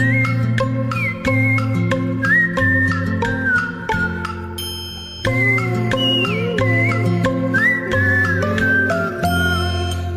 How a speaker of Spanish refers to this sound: Si hay silencio en mi garganta, me pondré a silbar así.